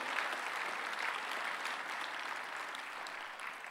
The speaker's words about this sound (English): So why don't we raise a cheer, raise a clap for the people that have made a decision, both in the room and online, if you've already done that? Incredible.